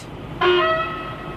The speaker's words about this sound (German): Die Siedlung liegt direkt neben dem neuen ICE-Werk. Jede Nacht werden hier ICEs gereinigt und gewartet. Bevor ein Zug das Werk verlässt, wird sein Makrofon, also die Hupe, getestet.